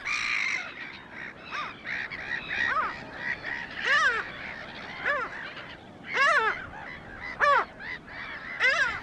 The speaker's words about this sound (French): Quant aux mouettes mélanocéphales, il suffit d'écouter leurs cris perçants pour les remarquer en un instant.